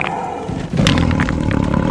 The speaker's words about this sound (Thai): เสือได้คลานเข้าไปอยู่ในถุงอย่างกระตือรือร้น กระจงได้ผูกปากถุงแล้วก็ลากออกไปพอเสือได้ถูกกระแทกกับก้อนหิน มันได้ร้องออกมาอย่างเจ็บปวด